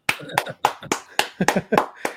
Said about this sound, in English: I applaud you. Yes.